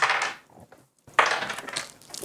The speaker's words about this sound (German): Ich würfel die ganze Zeit Sexfragen. Ich versuche die wegzuwürfeln. Jetzt habe ich eine Alltagsfrage gewürfelt.